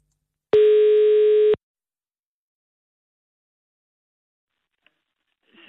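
A single steady telephone ringing tone on an outgoing call placed by a Danish journalist from Radio 24-7, about a second long and fairly loud, followed by several seconds of silence and a faint stir of sound at the very end.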